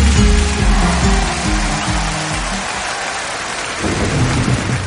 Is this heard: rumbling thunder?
yes